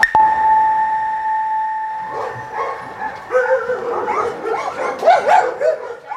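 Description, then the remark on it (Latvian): A steady high electronic tone hums at first, then several dogs at the animal shelter in Rēzekne, which houses 15 dogs and about 30 cats, break into overlapping barks and yelps, loud, growing busier and more excited toward the end. “atrodos Reizeknes dzīvnieku patversmē. Šobrīd mitinās 15 suņu un ap 30 kaķiem.”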